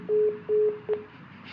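phone call hung up

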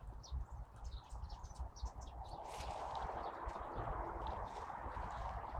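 sparrows chirping

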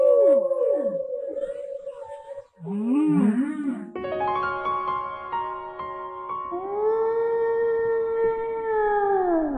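whale song

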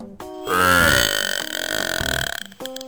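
burp

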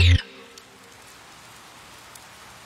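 rain falling

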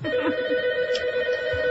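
telephone ringing

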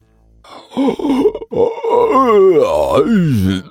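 big yawn

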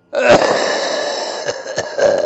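cough

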